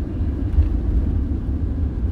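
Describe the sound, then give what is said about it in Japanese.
A steady, deep rumble inside a car driving on the road during a commute, continuous and fairly loud with no voices or distinct events over it. “環境っていうのが運転中なんですよ通勤中。”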